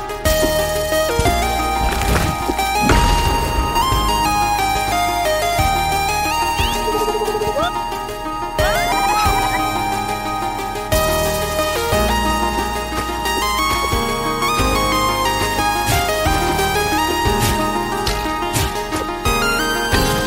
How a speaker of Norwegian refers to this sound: Jeg har eh, et spill jeg òg jeg vil anbefale, som jeg kjøpte i dag. Jeg har kun spilt det i en par timer, men eh, skal få høre noe, litt musikk fra spillet først, før jeg avslører hva det er for noe.